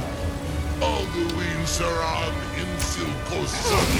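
Video game combat against a dragon, with a loud, drawn-out shout (the Dragon Rend shout) and a few sharp arrow impacts cracking through a dense, rumbling background of game noise.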